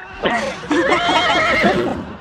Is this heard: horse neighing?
yes